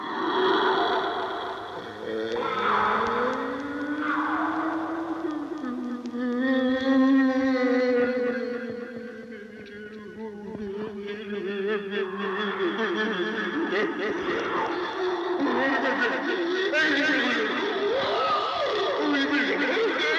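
An eerie recording plays back on a small reel-to-reel recorder on a table: long, wavering moans and sliding tones that rise and fall slowly, layered with squeaky chirps and a steady hiss, with no talking throughout.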